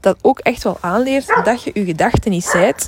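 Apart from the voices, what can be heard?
dog barking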